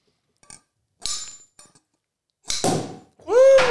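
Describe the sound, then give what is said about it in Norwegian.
A few sharp metallic taps and clinks on a glass bottle, then a loud cracking burst as a champagne bottle is sabered with a hammer, followed by a loud voiced exclamation. “Jeg har aldri sett noen sable en uh, champagne med, med halmer.”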